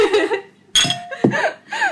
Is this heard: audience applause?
no